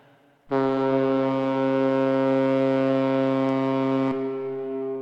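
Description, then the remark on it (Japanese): A deep, steady horn from a luxury cruise ship moored at a harbor in Japan in midwinter, around New Year, blasts once for about three and a half seconds, a loud low tone rich in harmonics, then cuts off, leaving a faint windy background hum. “坂を登りきると向こうに海が見えた年越しを日本で過ごそうという豪華客船が停泊していた”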